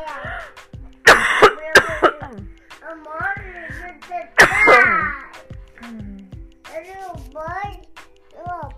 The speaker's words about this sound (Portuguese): Ah, eu vou tossir.